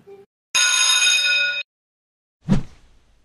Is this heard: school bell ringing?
yes